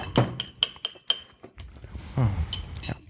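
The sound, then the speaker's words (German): Several sharp clinks of a plate and a glass being set down, a quick irregular series of bright taps in the first second, followed by softer shuffling and a couple more light knocks. “So, Teller hinstellen. Mhm. Glas.”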